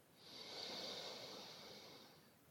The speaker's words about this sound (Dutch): We doen er nog twee samen. aandacht terug naar de ademhaling. In.